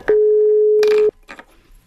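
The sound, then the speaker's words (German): A phone's ringback tone while calling: one steady, low-pitched beep lasting about a second, then stopping, with a few brief rustling bursts around and after it. “Lass uns sie mal bitte eben anrufen hier.”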